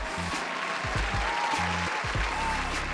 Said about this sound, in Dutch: Even een applausje, jongens.